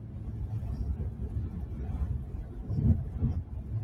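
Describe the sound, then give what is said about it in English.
A steady, low road rumble fills the inside of a car driven by a lone driver, a continuous muffled drone that swells slightly near the end, with no voices over it. “Just shit that I like to think about when I'm driving alone in a car.”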